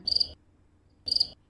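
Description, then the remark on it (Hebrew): Two short bursts of a cricket chirping sound effect, each a quick rapid trill of high, shrill pulses, separated by a pause of near silence. Clear, with no voices. “רגע, צרצר.”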